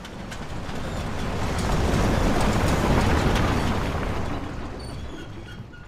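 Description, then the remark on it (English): Layered film sound effects: truck tires grind over gravel in a dense, rumbling crunch, with the truck's body rattling in small clattery bursts; the noise swells steadily, holds loud through the middle, then eases off. No voices. “We have several layers of effects going on there tire rolls and like gravel under tires and the body of the truck rattling, interior truck, interior cab, interior back of the truck, all these things happening.”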